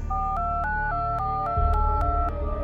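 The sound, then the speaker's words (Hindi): A phone number being redialed in an office, the top number from the call list: about nine short keypad beeps in quick, steady succession, each a different two-note tone, fairly clear over a low background rumble, with no talking. “वो अपनी call list में डायल किया हुआ सबसे ऊपर का नंबर बार बार मिला रहा था पर फोन कोई भी पिक नहीं कर रहा था और उसकी बेचैनी बढ़ती जा रही थी उसने फिर एक बार नंबर मिलाया”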